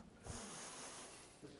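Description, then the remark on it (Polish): A loud breath drawn through the nose, one long airy rush lasting over a second with a short snorting start and a slight catch near the end, no talking. “I oddycham.”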